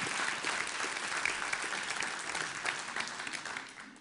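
An audience applauds a man after he has shared his story, a dense, steady patter of many hands clapping at once that holds fairly loud throughout before tapering slightly at the end.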